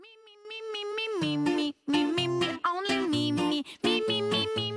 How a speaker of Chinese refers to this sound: 好啦，在我们节目这个接近尾声的时候呢，我们来听一下我们非常非常经典的一首歌曲。